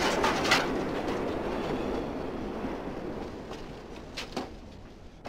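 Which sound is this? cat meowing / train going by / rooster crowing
train going by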